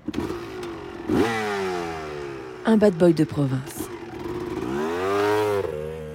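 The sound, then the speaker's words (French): A motorcycle engine revs up and down in sweeping bursts as it rides through the streets, with a quick cluster of sharp crackling backfire pops midway; a voice speaks briefly over the engine noise. “Il traficotait, fumait des joints, sillonnait les rues sur sa moto pétaradante.”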